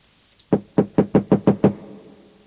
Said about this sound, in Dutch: Mijn kloppen klonk hol door het gewelf.